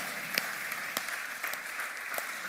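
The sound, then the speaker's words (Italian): Audience applause for the word of Jesus during a sermon: a steady wash of many hands clapping, with sharper individual claps popping out irregularly above the dense, even patter. No voices are heard. “Applaudiamo alla sua parola.”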